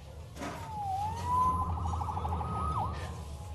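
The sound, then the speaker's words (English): A police siren wails with a rising and falling tone, followed by a quick yelping burst, heard over a low rumbling street background. “Saved by the siren.”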